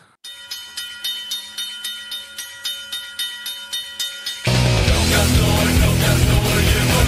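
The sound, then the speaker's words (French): The goal horn of Djurgården, an ice hockey team from Stockholm, blares, a loud, steady harmonic tone throbbing in about a dozen quick rhythmic pulses, then giving way to a dense, loud roar that fills the last few seconds. “Écoute, moi j'ai fait dans le classique, j'ai pris le goalhorn de la meilleure équipe de Stockholm, j'ai nommé Jurgorden.”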